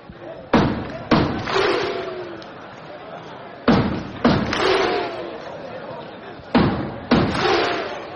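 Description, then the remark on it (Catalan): The standing crowd at El Congost arena performs the Icelandic thunderclap chant: three slow, evenly spaced rounds, each a sharp mass clap followed by a loud collective shout, with a crowd murmur carrying between them. “El Congost es posa dret per començar el que és el toc islandès.”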